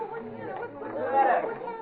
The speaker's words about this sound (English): what's all this crowd here in the corridor for?